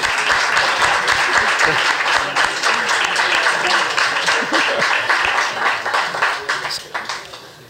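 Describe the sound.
An audience applauds someone who is bringing a bottle of bourbon, with dense, steady clapping that holds for several seconds before gradually thinning out toward the end, with faint voices murmuring underneath.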